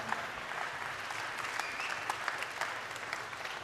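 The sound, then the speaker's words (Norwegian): An audience claps steadily in a dense, even wash of applause lasting several seconds, with scattered sharper claps standing out; no one speaks over it. “En stor applaus for deg.”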